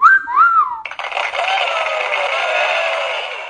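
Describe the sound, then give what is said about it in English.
A canned applause effect: a sharp two-note whistle, then a steady wash of clapping and crowd noise that holds at an even, loud level to the end. “Will you stop with that stupid canned applause?”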